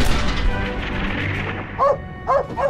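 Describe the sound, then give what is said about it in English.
A dog barks three times in quick succession, sharp, following a stretch of dense, rumbling noise that fades out just before the barking starts; a scene from an animated film about a World War I U.S. Army dog warning soldiers. “The dog is trying to warn us!”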